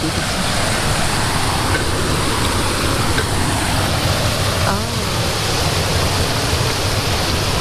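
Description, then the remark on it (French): A powerful waterfall, a well-known cascade with two restaurants facing it, roars steadily, its dense rushing noise filling every moment, with a faint voice or two barely audible beneath the constant torrent. “Donc on a deux restaurants qui sont, en face et on a donc cette fameuse cascade.”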